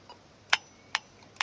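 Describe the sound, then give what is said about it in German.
A pedestrian crossing signal gives three sharp, evenly spaced ticks about half a second apart, crisp and moderately quiet over faint background noise, with no voices. “Dann habe ich nochmal die Traffic Lights aufgenommen. Stimmt, die haben immer so gepiepst.”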